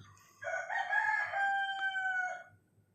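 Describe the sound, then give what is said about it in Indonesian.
A rooster crows once, a long, loud, harmonic cock-a-doodle-doo lasting about two seconds, with faint low background noise and no talking. “ini udah pagi emang belum coy kok udah bunyi sih belum belum pagi”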